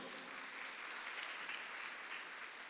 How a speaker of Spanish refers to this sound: Si usted lo recibe, le da palmas al Rey de la Gloria.